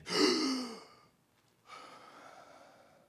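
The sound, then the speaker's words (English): A loud gasping intake of breath, then a brief pause before a second, softer and longer breath draws in with an airy hiss. No voices. “breathing in life.”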